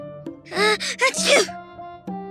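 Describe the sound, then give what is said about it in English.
A single loud, voiced sneeze from the character Ice Cream: a quick rising intake of breath that bursts into a noisy, throaty expulsion, set against a steady, soft musical drone in the background. “Ice cream, you've already sneezed twice.”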